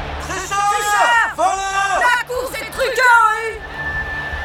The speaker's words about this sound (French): Quand les trois tocards franchissent la ligne dans cet ordre, le 3, l'As et le 14, c'est la consternation. Les parieurs hurlent dans les tribunes. Les insultes fusent.